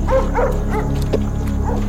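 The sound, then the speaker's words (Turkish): A white setter dog with yellow spots barks at two approaching strangers, about four sharp, loud barks in quick succession over a steady low background hum, with no talking. “Sevgililerden erkek olanı köpeğin havladığı yöne baktı.”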